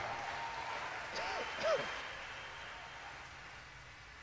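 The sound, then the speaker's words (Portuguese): An audience applauds a band, who sang that night, in a steady, dense wash of clapping that lasts the whole stretch, with a few brief voices or cheers rising above it just before the midpoint. “Para um aplauso a eles aí em nome de Jesus.”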